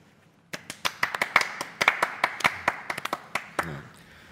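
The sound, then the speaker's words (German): Modest applause in a room: a small group claps for about three seconds, the sharp hand claps distinct rather than blending into a roar, then it quickly tapers off. “Applaus geht tatsächlich durch den Raum, wenn auch kein Tosender, aber auf alle Fälle Anerkennung spendender und ehrlich gemeinter Applaus”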